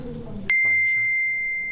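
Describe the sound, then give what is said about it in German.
A single hollow metal chime of aluminium or brass is struck with a rubber mallet, giving a clear, bright onset and a pure, sustained ringing tone that holds steady and loud, after some faint low background murmur. “Also es ist ja im Prinzip genauso, dass Gummi Kunststoff dagegen schlägt. Und das eine ist Aluminium, härter und Messing”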